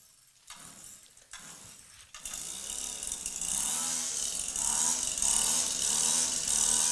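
A battery-powered weed whacker starts after a couple of seconds of quieter mechanical clicking, then runs steadily and loudly with a high, whirring, hissy buzz.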